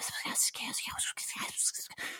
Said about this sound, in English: he now raises up his hand and closes his fist, and you hear these whispers start up again.